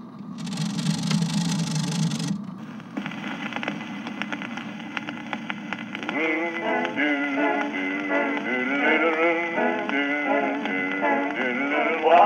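After a short burst of low rumbling noise, an old, thin-sounding 1926 Harmony disc phonograph record starts, and a few seconds later a group of voices sings together in close harmony over steady surface hiss.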